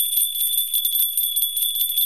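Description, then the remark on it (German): A bookshop door bell jingles as a customer comes in, a bright, high, shimmering ring that keeps trembling steadily for about two seconds, heard alone with no talking. “Und da kommt auch schon der nächste Kunde, sehe ich. Leo. Palim Palim, schreibt er.”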